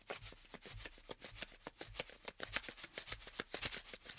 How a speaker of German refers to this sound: Es ist ziemlich leise, oder? Aber ich hoffe, ihr hört es. Das ist nämlich ein Zuckerstreuer. Und der Zuckerstreuer, mit dem kann man verschiedene Rhythmen machen.